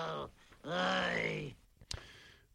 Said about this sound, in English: Can I groan any louder on this?